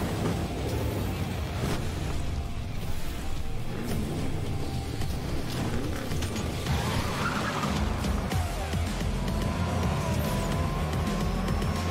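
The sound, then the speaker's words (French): Racing toy cars in the video game Hot Wheels Unleashed, shown in a gameplay presentation: a continuous roar of whining engines and rumbling motion, with rising and falling pitch sweeps and tire skids, steady and loud throughout, with no one talking. “Hot Wheels Unleashed est donc un nouveau jeu de petite voiture. Avec une présentation de gameplay désormais.”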